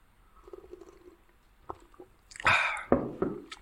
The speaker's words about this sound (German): Moment, ich muss mal meinen Kaffee schlürfen.